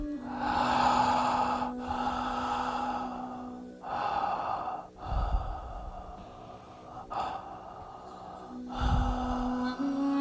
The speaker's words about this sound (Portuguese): Siga respirando por la boca, profundamente, suavemente, por la boca.